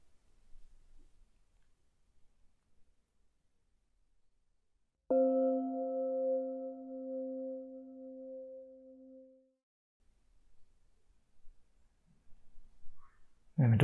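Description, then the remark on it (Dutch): A single meditation bell is struck once in near silence to begin a 45-minute silent group meditation, its clear, steady tone ringing out and slowly fading over several seconds before the quiet returns. “Je hoort na een paar seconden een bel en na 45 minuten weer.”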